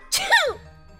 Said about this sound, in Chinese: 这时，鲁道夫刚好经过附近，他鼻子一痒，打了个喷嚏。